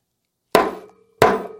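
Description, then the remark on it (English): Two loud hammer blows land about two-thirds of a second apart, each a sharp metallic strike with a short ringing tail, and no voices in between. “Ooh, and we hammer it down. You see what I'm doing?”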